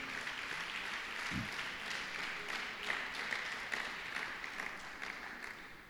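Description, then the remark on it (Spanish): Sustained applause from an audience marking the 21st class on the Book of Apocalypse (Revelation): a dense, steady wash of many hands clapping for about six seconds, with a few sharper claps standing out and a brief low thump partway through. “21 como hoy, un aplauso, 21.”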